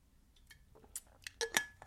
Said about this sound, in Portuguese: Entretanto, estou a ficar com a boca seca, deixem-me beber água, please.